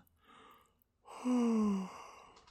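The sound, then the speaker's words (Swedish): A person imitates a whale's yawn: a soft breathy intake, a brief pause, then a loud, drawn-out voiced exhale that slides downward in pitch and trails off. “gäspade och la sig lite skönare till rätta där på stranden.”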